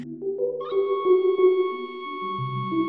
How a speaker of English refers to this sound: The penny whistle is the best $20 that I ever spent.